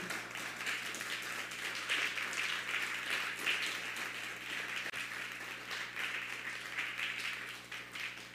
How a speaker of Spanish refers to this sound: Dale un fuerte aplauso a la comunidad mundial.